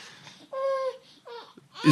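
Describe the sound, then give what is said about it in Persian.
A baby fusses and babbles in short, whiny bursts: one longer wail, a shorter follow-up, then a sudden louder cry at the end, without any adult talking. “برای همین اگه میتونین بچه داری اینا رو یه ذره زودتر بیارین نه این نقنقه که میبینی قلمه”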